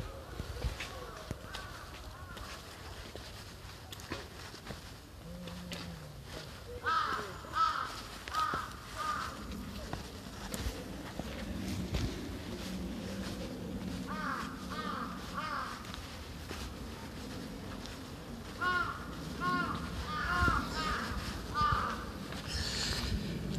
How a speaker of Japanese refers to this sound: こういっぱい鳴いてますね鳥がカラスが この自然音を今日は主にお送りしたいと思いますではしばしお聴きください